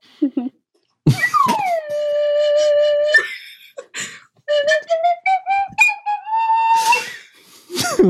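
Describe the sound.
A slide whistle swoops down and holds steady pure tones, then glides upward in stepped pitches, while a voice sings along over it, with short breathy bursts between phrases.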